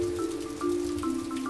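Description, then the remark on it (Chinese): Heavy rain pours down in a steady, dense hiss that fills the whole short clip, with a sustained low musical tone humming underneath. No one speaks. “不到几分钟的时间，就下起了大雨。”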